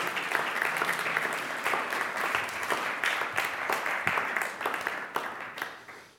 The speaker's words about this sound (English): Can we just give a little round of applause to our, our life group team?